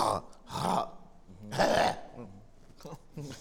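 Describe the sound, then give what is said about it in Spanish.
A voice imitates harsh, throat-clearing coughs, as when a popcorn husk gets stuck in the throat: two loud, rough bursts followed by a few shorter, weaker hacks, with no words between them. “Y yo procuro casi no comer palomitas porque siempre toso”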